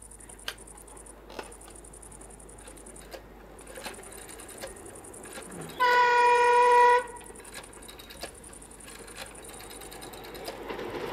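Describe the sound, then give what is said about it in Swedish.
A passing freight train's horn sounds in a single loud, steady blast lasting about a second, set against a low background rumble with scattered faint clicks and no talking. “Just nu har vi störningar här på nätet på grund av bullersamma godståg.”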